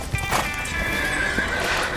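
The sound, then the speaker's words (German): A horse whinnies loudly, its shrill, wavering neigh sustained for about two seconds, with faint hoof clatter underneath. “Unser Tier macht ein seltsames Geräusch, das man Wiehern nennt.”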